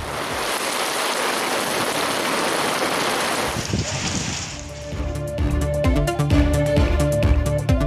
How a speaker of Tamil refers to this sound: திருவாரூர் காஞ்சிபுரம் நெல்லை திருவட்டாறு உள்ளிட்ட இடங்களில் கோடை மழை அக்னி வெயில் துவங்கிய நிலையில் மழையால் மக்கள் மகிழ்ச்சி